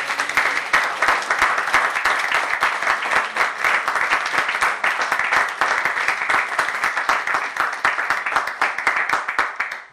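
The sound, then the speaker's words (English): A large crowd bursts into sustained, dense applause as a clap offering to the Lord, countless hands clapping steadily and loudly for the full stretch with no one speaking over it. “Come on, give a big clap offering to the Lord.”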